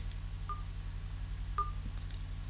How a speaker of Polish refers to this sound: głośność, głośniej robię, słyszymy taki Klik to jest podgłaszanie dzwonka. Ja go teraz ściszam, gdzieś o tak.